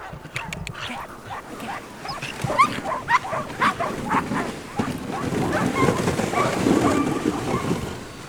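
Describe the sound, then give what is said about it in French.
A pack of sled dogs, six harnessed in front of each sled, barks and yips in quick overlapping bursts, loud, with whimpers mixed in and people talking over the noise. “Garde bien tes chiens derrière.”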